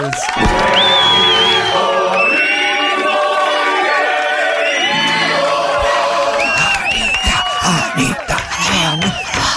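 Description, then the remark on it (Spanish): A large crowd cheers a guest's arrival on a live program, loudly and continuously, a dense roar of overlapping voices with high whoops and yells rising and falling throughout, never pausing for the full ten seconds. “Escuche cómo la vitorean.”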